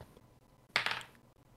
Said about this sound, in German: Jetzt musst du noch deinen 1W6 würfeln.